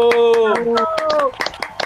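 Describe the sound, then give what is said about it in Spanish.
A burst of applause closing a segment of the program Master Geek: quick, sharp handclaps in an uneven patter, with a sustained voice shouting or cheering over the first half before the clapping continues alone. “cerremos la sección con un, gran aplauso con, con usted.”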